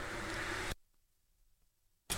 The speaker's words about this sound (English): So, sorry about all the back no, background noise. Uh, my wife turned the air conditioning off the other day, and all the windows are open. We got a lot of truck traffic going up and down the road for some reason.